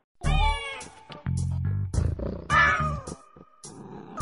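A cat meows loudly, a couple of drawn-out, wavering cries separated by lower, rougher growling sounds, with no talking.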